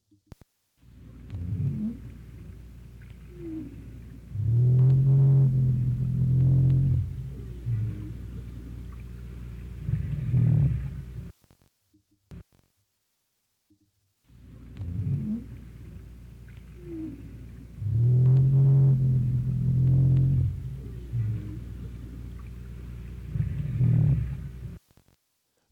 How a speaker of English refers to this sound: Again, this is this is a pretty common sound for a North Atlantic right whale to make. And by the way, this is courtesy of William A. Watkins from Wood, uh, Woods Hole Oceanographic Institution.